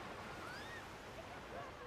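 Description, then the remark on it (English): A steady, soft wash of calm ocean waves fills the scene as continuous surf noise, with faint thin whistling tones drifting above it and no voices. “The waves are pretty calm if you want to go out and commune with nature.”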